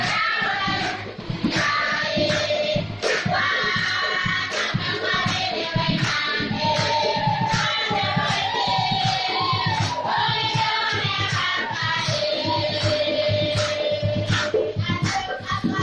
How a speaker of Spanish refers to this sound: Hoy todos dan gracias al Señor por el gozo y la alegría que les ha concedido al recibir los sacramentos mientras el coro canta con alegría en el interior de la iglesia durante la celebración de la primera comunión. Suena así.